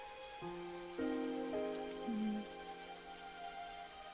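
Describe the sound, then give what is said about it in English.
Slow, sustained piano notes ring out one after another over a steady wash of falling rain and thunder, with no voices. “And all this is the thunder, rain, and a fucking piano.”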